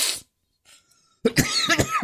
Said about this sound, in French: Pardon. Oh, je vais, ça me fait tousser, putain.